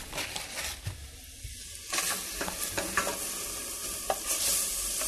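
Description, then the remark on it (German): Onions and bacon sizzle steadily in margarine in a frying pan, the onions sweating until glassy, a bright continuous crackle with occasional sharper pops and a spatula stirring and scraping now and then, with no talking. “So, ne, das Margarine, Speck ist ausgelassen, die Zwiebeln glasig schwitzen, nicht braun werden lassen.”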